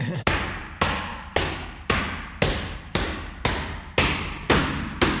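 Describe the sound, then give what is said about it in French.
Pantsula dancers stomp their feet on the floor in a steady, loud rhythm, about ten heavy thuds roughly every half second, each with a brief ringing tail. “Les percussions des pieds sur le sol et les sifflements rythment les mouvements”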